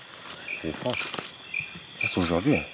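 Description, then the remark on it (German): Hot, humid tropical forest ambience in Ivindo National Park, Gabon, with birds, insects, monkeys and frogs: a steady, high insect drone and repeated short chirps, while animal calls with a wavering, tonal quality rise and fall in the foreground. “Vögel, Insekten, Affen und Frösche sind zu hören.”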